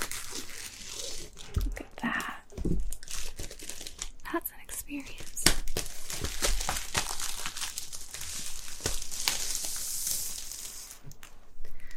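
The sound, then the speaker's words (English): A crackly peel of a plastic seal strip off a new laptop box, with continuous crinkling and tearing noises over several seconds, occasional sharper snaps, and a faint low voice in the background. “Very satisfying peel.”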